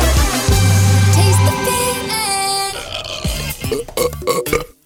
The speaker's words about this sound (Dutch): Ja, dan ga je boeren gewoon, toch? Ja, boeren.